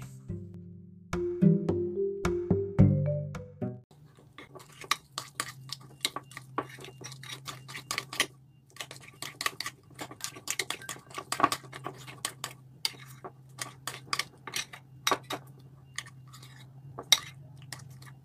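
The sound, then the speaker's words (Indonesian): Sticky, chewy cooked dough pressed and turned in leftover dry flour on a plate until it is no longer sticky, giving a steady run of soft taps and light clinks against the dish, after a brief tonal hum at the start. “Nah, kemudian dimasukkan ke da, uh, di piring yang sudah ada tepung, sisa tepung yang kering tadi.”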